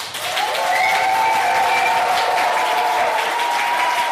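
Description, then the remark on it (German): A live workshop audience bursts into steady, loud applause for several seconds, with sustained cheering and whoops carried over the dense clapping. “Lass mal hören, dass ihr da seid.”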